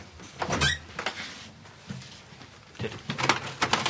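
A refrigerator's freezer-compartment door, a separate small door, is pulled open during a prison cell inspection, with a cluster of clicks and rattles at first, then a few softer knocks and a final burst of clattering handling noise.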